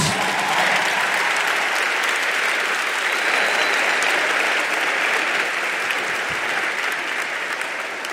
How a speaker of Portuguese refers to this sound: Dá uma glória a Deus então aí. Aplauda o nome de Jesus.